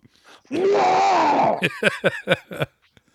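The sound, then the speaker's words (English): A loud, drawn-out, groaning throat clear lasting about a second, followed by a quick run of five or six short, rasping bursts, then silence. “mm, let me clear my throat.”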